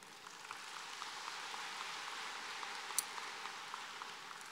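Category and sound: crowd, audience applause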